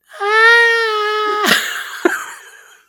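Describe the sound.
A single loud, drawn-out wailing cry from a human voice imitating a monster, holding a steady moaning pitch before breaking into a rough, strained groan and a short final gasp.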